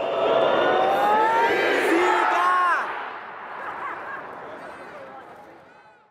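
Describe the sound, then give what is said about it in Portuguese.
A big stadium crowd of Brazilian fans in the stands boos and shouts together as a player is about to defend a ball, a dense, loud roar of many voices with rising yells, easing off partway through and fading toward the end. “E quando a Hope estava prestes a defender uma bola, os brasileiros na arquibancada vaiavam e gritavam”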